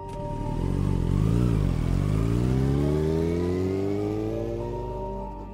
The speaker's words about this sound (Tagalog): Tinanguan ko lang ang mga barkada ko saka ako sumakay sa motor. Pinaandar ko ito. Halos paliparin na hindi na ako nag-iisip.